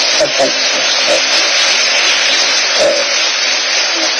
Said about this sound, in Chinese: 呃，能不能给点掌声鼓励啊？好。